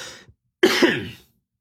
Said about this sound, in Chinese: 对不起。已经咳嗽很多遍了，这遍我就不掐了。最近这不是什么甲流吗？完了，发烧、咳嗽，哎，这胸腔不敢使劲儿。